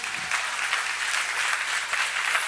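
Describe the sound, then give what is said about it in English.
A church crowd gives the Lord a clap on a Friday night, clapping steadily in a dense, continuous burst of applause, a bright crackling wash of many hands with no voices standing out, holding at an even loudness throughout. “Why don't we give the Lord a big old clap?”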